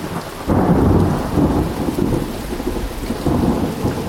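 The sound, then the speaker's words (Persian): Steady rain pours down while thunder rumbles low and continuously, swelling suddenly after a brief quieter start and rolling on without pause. No voices are heard. “ازم پرسید همیشه اینجا بارون میاد”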